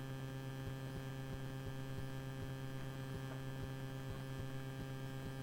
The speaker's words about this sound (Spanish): estamos con algún problema, con alguna interferencia.